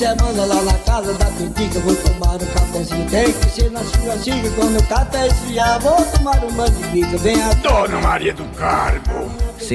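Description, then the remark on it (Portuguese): A man sings a playful, comic song from his newly recorded CD in a steady, bouncy rhythm over a full band, the voice loud and up front and the music continuous from start to finish. “E ele está fazendo agora o lançamento desse CD aqui na empresa”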